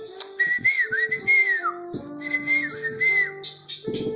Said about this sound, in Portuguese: E os passarinhos cantavam naquele momento.